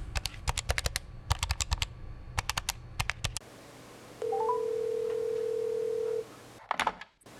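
A phone number is tapped in with a quick run of sharp key clicks, then a single steady ringing tone sounds for about two seconds before a few handling clicks. No one speaks.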